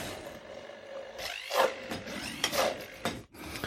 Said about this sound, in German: Äh, so, jetzt habe ich hier den Pürierstab. Ihr könnt das Ganze auch in der Küchenmaschine, im Mixer oder im Fleischwolf machen, je nachdem. Ziel muss am Ende nur eine, eine Paste sein.